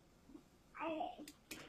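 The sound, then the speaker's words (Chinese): A young child, the speaker's own child who is still awake and listening, babbles in a short burst of high, wavering vocal sounds, rising and falling in pitch, followed by a couple of brief breathy noises. “不好意思，我孩子在旁边， 没关系， 有点还睡不着，在听。”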